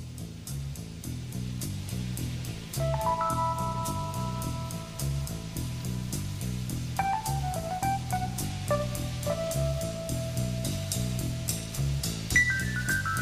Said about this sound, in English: some uh, sound effects in the background, a little rain going on